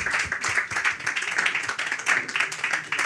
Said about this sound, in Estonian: teeks sulle aplausi, tule proovi